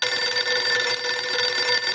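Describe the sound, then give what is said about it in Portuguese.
A telephone rings in a film scene with a bright, shrill, continuous trill that stays loud and steady for the full two seconds, with no voices present. “Naquela cena que eles estão falando no telefone,”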